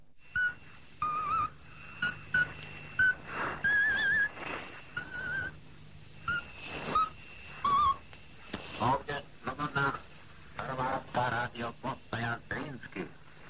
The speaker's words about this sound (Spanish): Radio Checoslovaquia Libre, que comenzaba sus emisiones con el locutor silbando una melodía nacional